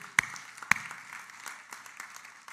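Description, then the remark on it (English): Audience applause: two sharp, loud claps up front, then a steady patter of many hands clapping at a moderate level for the rest of the moment, with no voices over it. “That's a good time to, to applause here”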